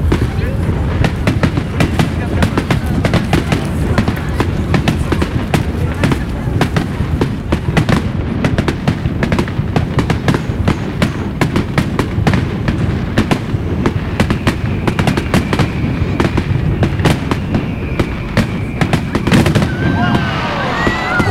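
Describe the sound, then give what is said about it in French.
A loud, continuous barrage of fireworks, with rapid overlapping bangs and crackles filling the whole stretch and faint voices in the background. “Waouh Ouais, ils sont beaux, hein, ces feux d'artifice.”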